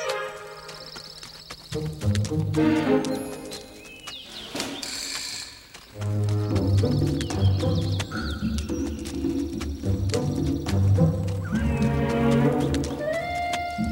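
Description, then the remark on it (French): A horse whinnies loudly several times over a steady clatter of hooves trotting, with faint bird chirps in the background and no one speaking. “dans un de mes rêves où je crois me promener à cheval par une belle journée”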